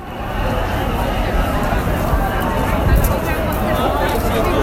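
A dense, steady hubbub of many overlapping voices from a packed crowd on a busy street in Shibuya, with no single speaker standing out and a constant low rumble beneath.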